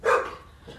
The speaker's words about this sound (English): eh, that's the dog.